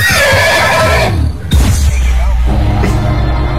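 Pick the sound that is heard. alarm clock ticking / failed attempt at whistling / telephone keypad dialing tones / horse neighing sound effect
horse neighing sound effect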